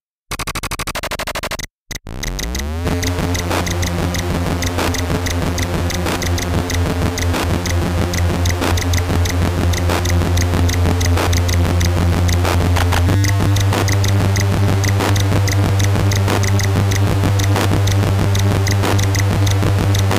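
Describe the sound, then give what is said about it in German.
Buzzy music from the Commodore 64 SID chip, which offers only three voices, plays without any talking, opening with a quick rising pitch sweep before settling into a dense, pulsing chiptune groove over a droning bass that shifts partway through. “gefühlte sechs bis acht Stimmen da unterzubringen, obwohl der SID-Chip vom C64 nur drei Stimmen zur Verfügung stellen konnte”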